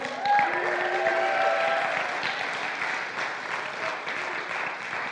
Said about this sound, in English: Let's give it up for